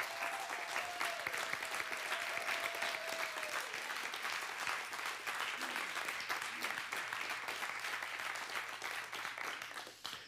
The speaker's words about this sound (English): And I would be remiss. Thank you. Let's let's give them a round of applause.